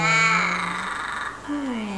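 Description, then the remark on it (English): A voice imitates a crow's caw with two drawn-out, nasal, raspy calls: a long, loud one, then a shorter one after a brief pause, with no other sound. “Okay, so what does a curse sound like? Mm, I, sounds like a crow. A caw.”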